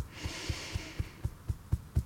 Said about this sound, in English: And now let's tap just a little bit um, on our chest, maybe in the middle, kind of near the heart, kind of on the sternum.